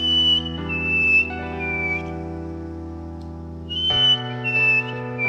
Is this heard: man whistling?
yes